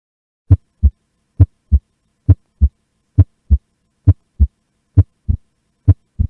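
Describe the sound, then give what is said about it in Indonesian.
Heart sounds with the second sound (S2) splitting during inspiration and merging again on expiration, a physiological split: a steady lub-dub rhythm, about seven low, thudding beat pairs in close, clear succession with no voices. “Ini coba kita dengarkan bunyi jantung S2 yang split ya nanti.”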